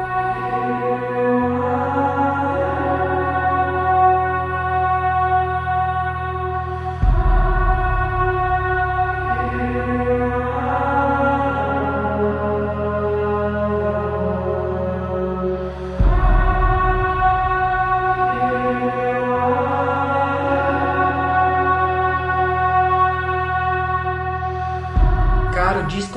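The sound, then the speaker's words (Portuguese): Slow ambient music from an album, left playing in the background, of sustained, layered chords over a deep drone, shifting to new harmonies every few seconds at a steady, moderate level, with no voices. “mais ambiente de toda a nossa lista. Mas eu vou deixar tocando de fundo, bem de boa, e o álbum é bem suportável, bem, bem digestivo.”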